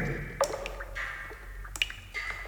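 Water drips inside a sea cave in Croatia, a handful of clear, echoing plinks landing irregularly over a soft, steady background hiss. No one speaks.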